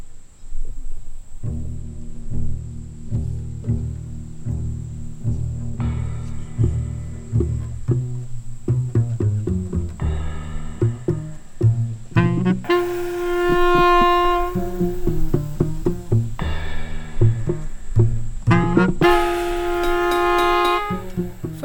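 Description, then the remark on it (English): A band, led by a saxophonist, plays its new piece at an open-air performance in early evening, with a steady low rhythmic pulse under sustained, bright saxophone melody lines that swell louder and brassier toward the end. No one speaks. “So let's listen to some highlights, starting with … performing their brand new piece, ….”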